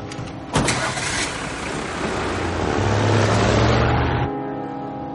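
A pickup truck engine cranks and catches with a sudden burst in a parking lot, then settles into a steady rumble that rises as the truck pulls away to follow another car, sustained for several seconds before easing off.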